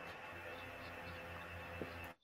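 A steady, low hum of someone's electric fan in the background, with a faint whooshing airflow, runs continuously for about two seconds, quiet and even, then cuts off abruptly. No one speaks.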